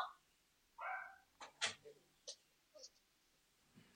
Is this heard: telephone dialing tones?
no